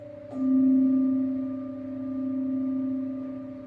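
A singing rin bowl is struck once and rings on in a steady, pure hum with a few clear overtones, sustaining evenly without fading much, alone with no voices, during a lying-down yoga meditation for relaxation.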